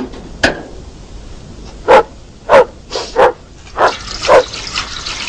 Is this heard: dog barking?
yes